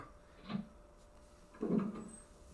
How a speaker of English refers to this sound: Doors sound like windows now